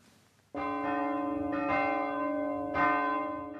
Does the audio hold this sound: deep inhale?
no